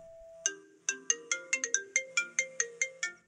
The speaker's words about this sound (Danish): Min telefon ringer.